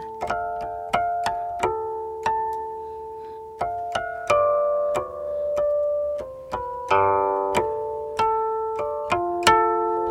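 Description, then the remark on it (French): Harmonics on a guqin, the ancient Chinese zither with a 3000-year history, ring out in a slow, unhurried melody: about twenty light, bell-like plucked tones, each struck cleanly and left to shimmer and fade, played alone with no voices. “Ça, c'est le son du ciel.”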